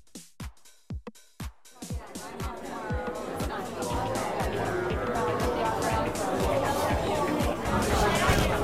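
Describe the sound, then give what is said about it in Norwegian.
A few sharp percussive knocks or claps open, then a dense crowd of many voices chattering and laughing over one another at a party in a venue, a steady loud hubbub that builds slightly toward the end. “Jo, jo, velkommen tilbake til lokalet. Vi er klare for en god fest.”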